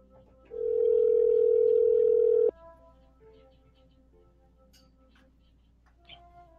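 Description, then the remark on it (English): A telephone ringing tone from a call placed from a studio sounds once, a loud, steady two-second burst on the line, then gives way to quiet line hiss with faint tones. “We'll call him and uh, we'll make sure that he answers the phone, and then I will go ahead and introduce him to you.”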